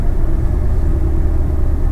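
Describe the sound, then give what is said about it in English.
A car engine rumbles steadily as the driver changes gears, a dense low drone that holds at an even level for the full two seconds, with no voices. “Change gears there.”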